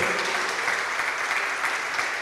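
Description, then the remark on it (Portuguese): A crowd applauds to the Lord, dense overlapping claps forming a continuous, fairly loud wash of sound with no pauses, and no speech over it. “Então, pode aplaudir ao Senhor.”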